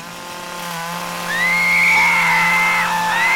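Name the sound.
chainsaw cutting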